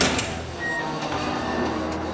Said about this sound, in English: The target meat is still at large, but it looks like one of the blasts opened up a hidden door leading underground. I open the latch